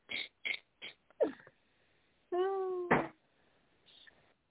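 A single drawn-out, fairly loud cat meow, following a few sharp clicks and taps, then a faint rustle.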